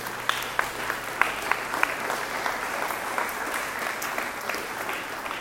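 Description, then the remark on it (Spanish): An audience at a church service breaks into sustained applause as an offering to the Lord, a dense wash of many hands clapping steadily for several seconds, with a few sharper individual claps standing out near the start. “Dale una ofrenda de palmas al Señor.”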